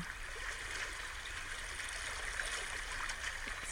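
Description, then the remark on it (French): Gentle sea water laps and trickles in a steady, continuous, soft wash, with no voices and no sharp breaks over the few seconds. “On se laisse totalement porter par l'eau, bercé par la douceur des vagues.”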